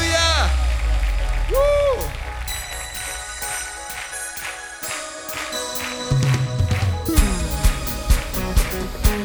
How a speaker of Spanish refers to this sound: Y vamos a terminar una vez más celebrando, pero quiero oír ese aplauso y quiero verlo saltar.